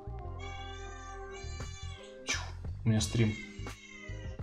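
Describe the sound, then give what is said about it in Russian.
A cat, Khora, meows loudly, two or three drawn-out, rising cries in quick succession, while a person speaks briefly over a steady low hum. “Хора мяукать.”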